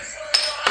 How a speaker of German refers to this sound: Ach, das war dein, das war, das war dein Öffner wieder, ne? Ja. ja, wenn ihr die Musik im Hintergrund hört, das ist der Borussia Mönchengladbach Flaschenöffner.